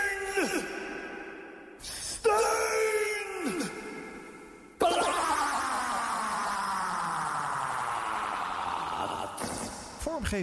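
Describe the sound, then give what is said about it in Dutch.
A radio show jingle: short bursts of heavily processed, echoing vocal sounds, followed by a long stretch of swooping, sliding tones that sweep downward and ring out loudly. “want jij bent bijvoorbeeld degene die deze jingle heeft ingesproken. Ik ga hem een keertje helemaal schoon laten horen, mensen.”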